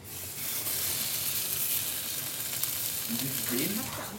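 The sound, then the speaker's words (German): A steak sizzles loudly and steadily in a hot pan, stood upright and seared on its fat edge first, a continuous crackling hiss, with faint voices murmuring briefly near the end. “Die fertig hergerichteten Steaks wandern indes in die Pfanne.”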